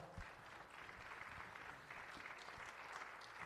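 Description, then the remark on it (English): Steady audience applause for standing dream team members, a dense wash of many hands clapping at once, holding an even loudness for a few seconds with no voices standing out. “Let's give our dream team members a round of applause.”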